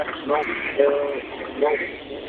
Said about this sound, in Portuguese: Tem que desligar mesmo o, o rádio do carro, senão.